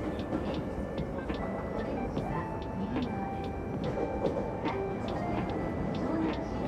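Steady low rumble inside a moving train carriage, with faint rhythmic clicks and rattles recurring throughout at an even, moderate level, and no talking.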